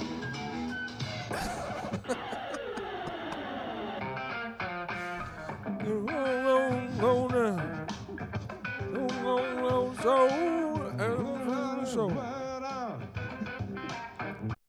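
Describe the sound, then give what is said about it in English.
A phone ringtone for an incoming call plays for about fifteen seconds, a loud, busy tune full of swooping, warbling tones that rise and fall repeatedly, with a brief laugh near the start. “This is his ringtone.”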